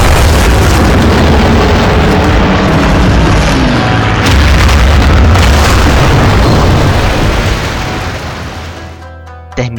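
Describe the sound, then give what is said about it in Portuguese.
Loud, sustained rumble of explosions as a second attack wave of 170 aircraft heavily bombs the areas spared in the first attack, four hours later: deep booms and bursts piling into a continuous roar that fades slightly near the end, with a voice faintly under the din. “Após quatro horas do primeiro ataque, ocorreu a segunda onda de ataque, composta por 170 aviões que bombardearam pesadamente as zonas poupadas no primeiro ataque.”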